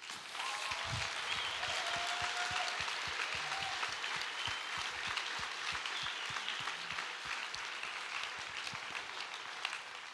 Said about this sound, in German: Und deswegen lasst uns Jesus mal einen Applaus geben dafür.